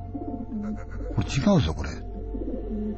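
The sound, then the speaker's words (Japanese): A man's voice mimics a pigeon's low, throaty coo in a short rolling burst mid-clip, framed by brief spoken words before and after. “ぷー、ぷぷる、ぷぷー、ぷぷる、あー、ハだなと思って、あ、そうか、先輩に手で鳩なんだな。”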